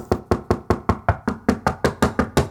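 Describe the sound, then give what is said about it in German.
Rapid, evenly spaced knocking of thin fingers on a small wooden door, about a dozen sharp raps in steady rhythm, fairly loud with no voices. “Sie war inzwischen schon zu einer kleinen Tür am unteren rechten Eck der großen Tür gegangen und klopfte dort mit ihren dünnen Fingerchen vehement gegen das Holz.”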